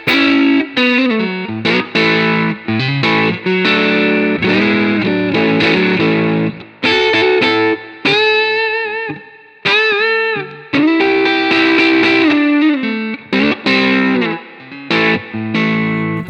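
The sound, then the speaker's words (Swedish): Distorted electric guitar, a Stratocaster on the neck pickup, plays a lively run of sustained notes and bends, loud and steady with a warm, rounded tone and brief gaps between phrases. No one speaks. “Nu kommer hals.”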